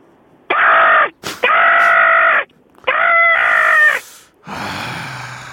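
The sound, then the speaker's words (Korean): A person imitates an ordinary everyday crow, stressing a trembling quality, with three loud, drawn-out harsh caws, each about a second long with short gaps between, followed by a noisier, rougher burst at the end. “아 까마귀 까마귀 하나 가지고 성공할 거로 생각하십니까?”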